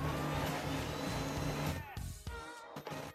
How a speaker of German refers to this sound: Was ist das? ich weiß auch nicht, mein Drucker hat hier gerade beschlossen, irgendwie loszulegen.